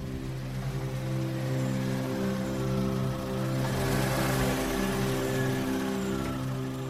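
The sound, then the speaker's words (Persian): A car engine hums steadily as the vehicle is driven into a yard and parked beside another car, a continuous low drone with a slight rise in intensity midway, with no voices. “ماشین اون دختره هم آوردیم تو حیات کنار اون یکی ماشین گذاشتیم”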